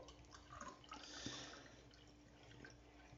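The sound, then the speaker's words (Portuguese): A thin stream of water pours steadily from a blue cup into a kettle to make tea, with small splashy drips and a soft hiss throughout, fairly quiet, with no one talking. “Você pega Você pega uma chaleira. Aí você coloca água.”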